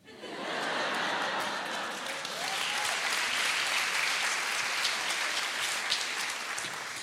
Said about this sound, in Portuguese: Olha, olha, palmas de pena que palmas de pena não quer.